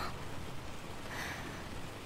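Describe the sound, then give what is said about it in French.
Steady rain falls without pause in a city, a soft continuous hiss of drops spread evenly across the whole stretch, fairly quiet and diffuse, with no voices or other distinct sounds. “Il pleut toujours dans cette ville.”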